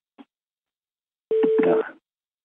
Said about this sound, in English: Did you hear somebody calling in? let me just move the phone line. Just, I think one of the audience.